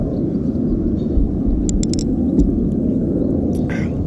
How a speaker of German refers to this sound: Und das, was hier gerade so laut ist, das ist ein Flugzeug. Das, die fliegen hier leider rum muss man dazu sagen vielleicht.